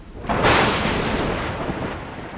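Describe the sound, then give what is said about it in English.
A loud crack of thunder bursts out suddenly during a storm, then rolls into a long, rumbling decay with a hiss like rain underneath. No voices are present. “Thunder exploded like gunfire”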